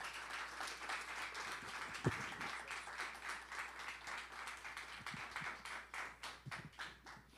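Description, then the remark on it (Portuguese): A church audience applauds warmly to welcome a visiting missionary, dense overlapping clapping from many hands that holds steady for several seconds, without any voices. “que já pode aqui se encaminhar, que a igreja receba com uma calorosa salva de palmas.”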